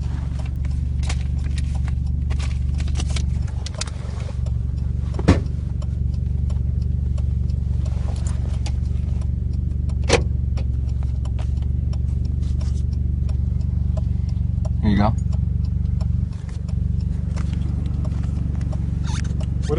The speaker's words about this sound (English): Yes, because your exhaust is extremely loud in this car. That's why you're being stopped.